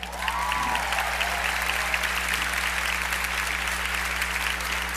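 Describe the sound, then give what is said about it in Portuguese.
A crowd claps steadily in sustained applause, praising the Lord for the life of a 15-year-old girl, a dense wash of hand claps that holds at an even level for several seconds, with a low hum underneath. “Essa, essa jovem bonita aqui, você pode aplaudir o Senhor pela vida dela?”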